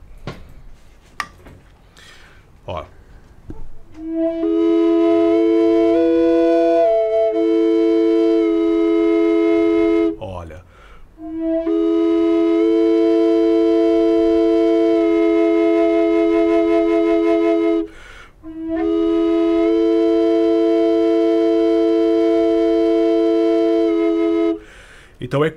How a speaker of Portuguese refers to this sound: é uma flauta originária aí do, dos verdadeiros povos americanos, né? é né? Isso aí. É, é, essa flauta, ela, é, você viu que o som dela, né? Quando, quando eu faço essa nota aqui, você pode ver que reverbera bem o coração.